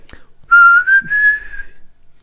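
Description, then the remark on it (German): A person whistles a short melodic phrase from a song, a clear bright tone rising slightly over about a second and a half, with no talking. “Genau, er saß, saß auf dem Schiff, war am Schiffen und hat gepfiffen.”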